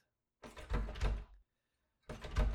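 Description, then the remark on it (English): An apartment door being handled: a long scraping, rattling burst ending in a low thud, a brief pause, then a second similar burst. No one speaks. “Here's the door to her apartment.”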